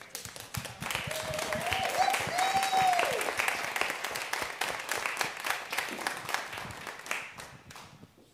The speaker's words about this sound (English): Let's give a round of applause to our shepherd and our angel.